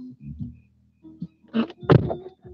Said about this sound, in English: Close that door. Excuse the noise, fellas.